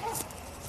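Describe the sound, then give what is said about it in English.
A big dog behind a small fence barks once at the people recording, a short, faint bark heard outdoors against low background noise. “It is so big, the fence is so small, and that's the dog that's barking at us, if you can hear.”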